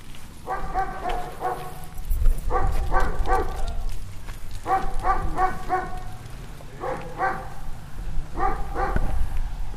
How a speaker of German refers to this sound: Auch nochmal hier so ein klassisches Geräusch, finde ich, wenn man in Brandenburg unterwegs ist. Bellt auch mal irgendwo ein Hund. Auch mal direkter.